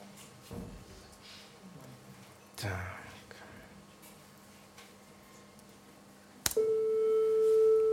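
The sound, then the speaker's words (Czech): A loud, steady, generated pure tone at concert pitch A starts abruptly after a sharp click and holds unwavering to the end, preceded by a few soft thumps and faint background noise. “Kde hudebník pozná tón, co je to za tón? komorní A. Je to komorní A.”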